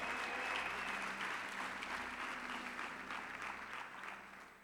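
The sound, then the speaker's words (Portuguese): An audience applauds the Lord in worship, a dense wash of many hands clapping at once, loud and sustained before easing slightly toward the end, with a faint voice murmuring underneath. “Dê um brado ao Senhor e aplaude, e adore, e adore.”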